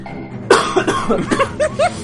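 A man coughs hard, a sharp burst followed by a rapid string of smaller raspy coughs that trail off over a couple of seconds.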